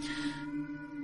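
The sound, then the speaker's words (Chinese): A black cat named Odin yowls in one drawn-out, steady cry lasting about a second, a tonal wail that starts with a harsh, breathy edge before settling into a smoother held note. No one speaks. “对不起，我的猫在不知道为什么一直在狂叫。”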